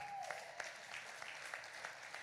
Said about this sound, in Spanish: Y cuando recibió la bendición, ¿qué hizo Abraham? Ese es un buen lugar para aplaudir.